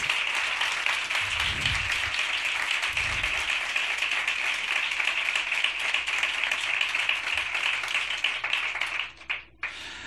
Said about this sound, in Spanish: Él es monologuista, cantante, compositor, antenista, locutor de radio, de televisión y lo que quiera, porque recibimos con este mejor de los aplausos, el primer aplauso lunero del año,